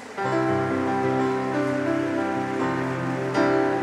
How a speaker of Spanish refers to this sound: Vamos, dale un fuerte aplauso a Jesús.